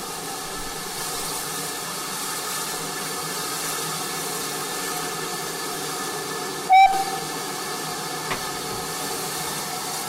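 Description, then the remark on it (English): The London Transport L92 steam locomotive stands hissing steadily at Ropley Station during a crew change, its low rumble constant, until one short, sharp whistle blast cuts through partway along, followed later by a faint clank. “London Transport L92.”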